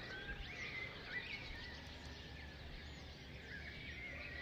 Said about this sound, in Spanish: y sobre todo los sonidos que tenemos aquí en naturales antes de que amanezca. Hay gallos todavía, hay muchos pájaros. Yo creo que también las lluvias les han ayudado a a estar más activos esta mañana.